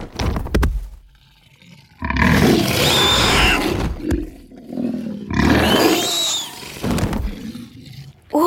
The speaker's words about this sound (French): c'était quoi ça Oh, ne t'inquiète pas, c'est juste un griffon. Un griffon Bah oui, un lion tête d'aigle.